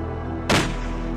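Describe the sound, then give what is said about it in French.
A single sharp gunshot cracks out loudly over a low, steady background hum, its bang decaying quickly into a brief echoing tail. “Un coup de feu sortit immédiatement à cime de sa réflexion.”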